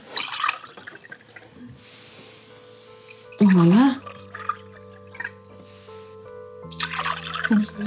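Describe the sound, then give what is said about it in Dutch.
Liquid trickles and splashes as drinks are poured into glasses for a toast in a few short bursts, with a brief spoken exclamation in between. “Kom, we gaan ons glasjes vullen.”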